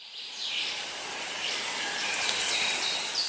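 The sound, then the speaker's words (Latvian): Outdoor summer forest ambience with a steady, airy hiss and scattered high chirps, likely birds or insects, at a moderate, even level throughout with no voices. “Bet kā skan mežs vasarā?”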